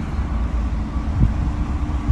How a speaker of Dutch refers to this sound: Er komt ondertussen een boot langs.